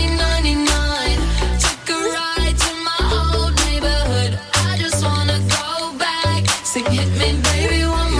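An upbeat pop song plays loud and full, with a steady thumping beat, deep bass notes and bright layered synths and vocals-free instrumentation filling the mix throughout.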